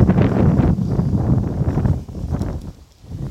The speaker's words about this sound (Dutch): Maar het waait best wel hard. Maar goed, wanneer waait het niet meer best wel hard tegenwoordig?